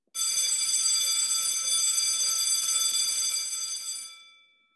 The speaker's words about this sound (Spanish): El timbre suena y todos se preparan para salir al recreo.